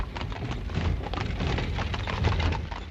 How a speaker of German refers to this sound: Eine Pferdekutsche fährt über das Kopfsteinpflaster von den Gamblebü. Die alte Stadt ist eines der zahlreichen Museen in Aarhus, die richtig Spaß machen.